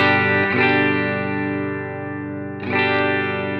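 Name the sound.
clean electric guitar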